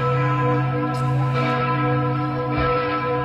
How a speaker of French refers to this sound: Vous savez pas pourquoi il y a une cloche qui sonne pendant 10 minutes le soir à 10 heures